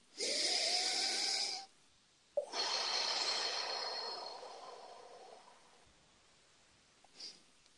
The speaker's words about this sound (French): Alors, une respiration.